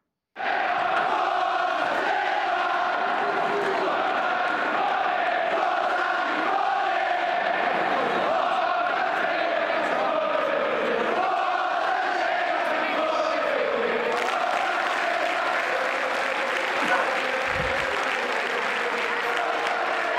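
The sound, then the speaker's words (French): A dense stadium crowd roars continuously through the Derby della Lanterna football derby in Genoa, with chanting voices, applause and shouts blending into a loud, sustained wall of noise that swells and shifts throughout. “Et on va se plonger dans l'ambiance de ce derby de la lanterne.”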